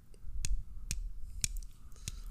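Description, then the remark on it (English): Small metal nine millimeter bullet tips tap together four times, each a sharp, bright little click spaced about half a second apart, over a quiet low background rumble. “This is this is what it sounds like when you touch tips with nine millimeter.”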